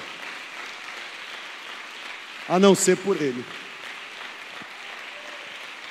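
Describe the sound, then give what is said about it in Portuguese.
Steady applause from an audience fills the whole clip, a dense even clatter of many hands, while a man's voice speaks briefly and loudly over it midway through. “Pode aplaudir mais forte.”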